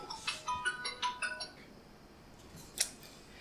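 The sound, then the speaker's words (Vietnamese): An alarm clock rings with a quick, rhythmic run of bright metallic chirps for about a second and a half, then falls quiet before one last sharp ping. “Tiếng báo thức.”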